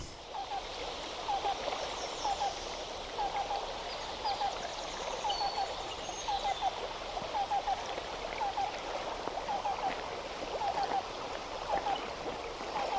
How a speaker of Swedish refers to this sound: Eh, en annan grej som jag aldrig har hört förut det är svartnäbbad ränggök. Har ni hört dem spela någon gång?